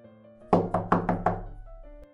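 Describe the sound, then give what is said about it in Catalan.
Five firm knocks rap on a wooden door in a quick, steady rhythm, clear, over a soft sustained musical tone in the background. “Però un dia el llop va sentir tot això que li deia la mare i va aprofitar quan va sortir per picar la porta de la casa de les set cabretes.”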